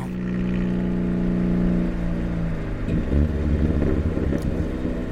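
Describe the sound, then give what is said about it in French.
A heavy freight train rumbles past, its deep diesel drone holding steady before breaking into a rougher, rolling clatter, loud, with no voices; freight trains passing an old two-storey house on a residential dead-end street in eastern France. “C'est une vieille maison sur deux étages dans une impasse résidentielle, bercée par le vrombissement des trains de marchandises.”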